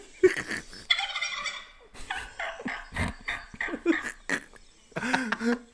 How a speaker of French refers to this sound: Pour ceux qui l'auraient deviné, le bruit du dindon, c'est Thanksgiving aux États-Unis aujourd'hui.